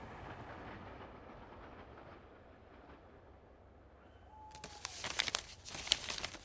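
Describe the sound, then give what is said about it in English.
A steady low rumble of a train rolling along the tracks, with a brief squealing whine partway through, then brighter rattling and clacking toward the end. No one speaks. “If this were a novel, it would begin with a character, a man, alone on a southbound train”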